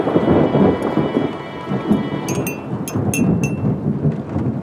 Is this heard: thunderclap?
yes